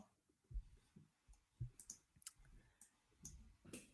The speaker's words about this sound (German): was klickst du eigentlich da die ganze Zeit? Such nach ja. Themen im Internet.